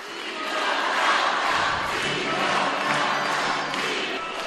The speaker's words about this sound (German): Die Gläubigen in der Basilika sind jetzt alle aufgestanden, um den Heiligen Vater zu begrüßen. Wir erkennen eine ganze Reihe von Ordensschwestern, auch Schwestern der heiligen Mutter Teresa. Und jetzt wird er begrüßt durch einen kräftigen Applaus.